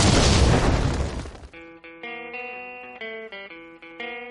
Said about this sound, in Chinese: 下面马上进入到今天的生活大爆炸环节， 瞬间爆炸。